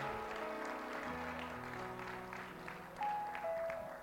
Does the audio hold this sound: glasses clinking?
no